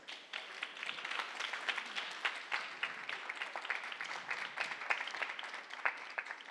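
An audience breaks into sustained applause for the guests after a presentation about accessibility, many hands clapping in a dense, steady patter of sharp claps that holds at an even, moderate level throughout, with no talking.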